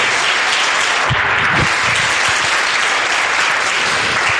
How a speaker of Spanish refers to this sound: Y esa vida en abundancia solo da nuestro amado Salvador Jesucristo que está aquí en esta hermosa mañana y a quien le brindamos un fuerte aplauso en esta preciosa mañana.